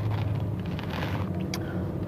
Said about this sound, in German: Wieder mal sitze ich im Auto